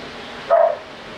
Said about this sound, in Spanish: Uy, escucho a las perritas. Ah, qué lindo. Ah, qué bonito.